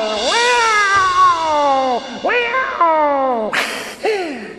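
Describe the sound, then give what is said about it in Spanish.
Cats meow loudly: a long, drawn-out meow followed by several shorter, falling meows in quick succession, with no talking. “La gata y sus gatos salvan el umbral.”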